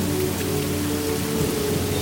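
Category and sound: nature, rain falling at night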